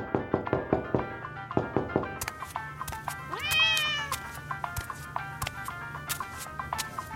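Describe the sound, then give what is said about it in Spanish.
A single drawn-out cat meow rises and falls midway through, set against a steady run of sharp knocks and thumps that keep a loose rhythm from start to finish. “Quítate de ahí, condenado gato, el diablo.”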